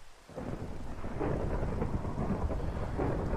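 A thunderstorm with steady, heavy rain hissing throughout and a deep thunder rumble rolling underneath, starting after a brief quiet moment and staying dense and constant. No voices.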